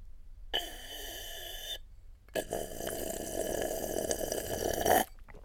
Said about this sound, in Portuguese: Isto é o final de uma caipirinha, sempre este, porque é tão bom. A pessoa chupa aquilo.